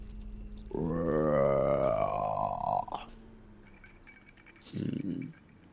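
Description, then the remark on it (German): A voice imitates a long, weary yawning groan, a drawn-out low moan lasting about two seconds, followed by a short, deeper grunting sound. Fairly loud. “So ein langgezogenes, müdes, wie Gähnen.”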